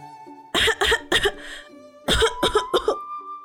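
human body sound, coughing from smoke

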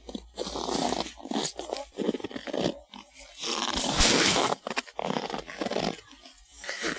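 nature, footsteps crunching in snow

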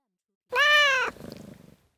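animal, cat meowing

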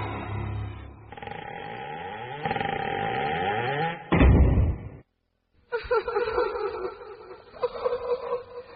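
household object, door opening

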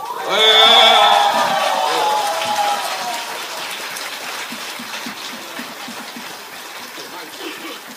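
crowd, audience applause

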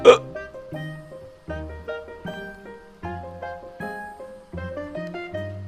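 human body sound, repeated hiccups

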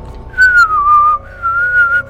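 sound effect, whistling

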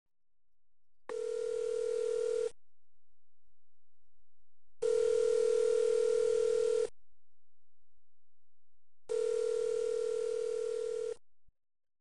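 signal or alarm, telephone dialing tone

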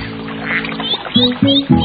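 bird, ducks quacking

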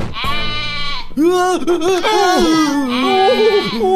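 animal, sheep bleating

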